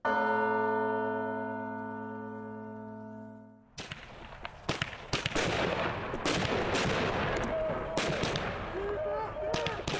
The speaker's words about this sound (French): Bon, et eh bien la fin d'année anticarcérale était plutôt belle, il faut le dire. On a eu droit à de magnifiques feux d'artifice en plein dans les miradors de Valence